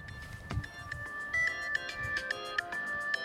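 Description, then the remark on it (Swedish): A mobile phone ringtone plays a bright, repeating electronic melody with steady beeping notes at a moderate volume, accompanied by faint low background rumble and no speech. “Åh, jag vill slå ihjäl telefon då.”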